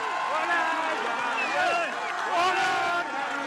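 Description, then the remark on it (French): A dense crowd cheers and shouts with joy after a Court of Appeal ordered the resumption of a patient's medical treatment, many overlapping voices rising and falling in a loud, continuous clamor with no pauses throughout. “C'est une explosion de joie.”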